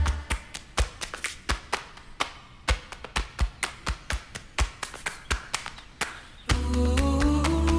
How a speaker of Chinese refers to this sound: 他刚那一段用了超多，就是人体拍拍会发出的声音